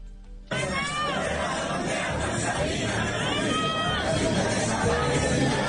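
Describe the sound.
A crowd of more than 200 young fans sings and shouts together outdoors at a hip hop concert on a closed public street in the Alfonso López neighborhood, southeast Popayán, a dense, loud, continuous roar of many voices that starts abruptly and holds steady throughout.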